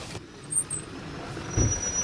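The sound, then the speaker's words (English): A truck's engine rumbles low as the vehicle rolls to a stop at a gate in Lake County at sunset on a windy day, with a brief heavier burst of noise near the end and faint high whines above; no one speaks. “The sun is setting on a windy day in Lake County by the time Hayes stops his truck at the Antler Dealer's Gate.”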